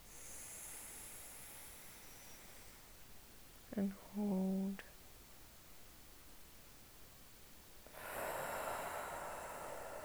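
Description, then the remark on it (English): A soft, airy breath in drifts in, then a short spoken phrase, followed by a louder, steady rush of exhaled air toward the end, during a guided breathing exercise of breathing in for four counts, out, and holding for four. “So let's have a big breath together. I want to breathe in for four, out, and hold for four, as we have done the last couple of times.”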